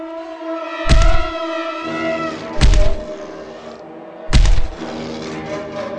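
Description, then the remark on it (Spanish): Three heavy, booming thuds strike against a door at slow, even intervals, each one loud and resonant, over a sustained eerie droning background. “Oigo un ruido en la puerta, como si forcejeara en ella un cuerpo inmenso y resbaladizo.”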